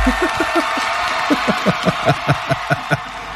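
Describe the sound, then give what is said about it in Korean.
A radio producer at a traffic broadcasting station claps hands about a dozen times in approval, in a steady, fairly quick rhythm, moderately loud, with a faint background hum and no talking. “PD가 잘했다고 박수 친 겁니다.”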